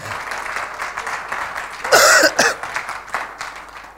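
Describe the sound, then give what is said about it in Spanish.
An audience claps for God in a dense, continuous patter of many hands, given as the best clap of prayer to God, with a brief loud cough or vocal burst rising above the applause midway through. “Dele el mejor aplauso al Señor.”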